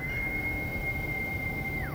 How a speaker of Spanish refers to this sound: Solo pasaron unos instantes hasta que escuchó un largo silbido